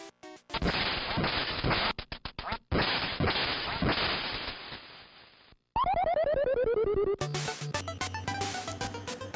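Retro video game duck quacks from the game Duck Hunt mixed with crackly electronic bursts, a falling whistle, and a short chiptune jingle at the end. The game sounds are loud and alone, with no talking.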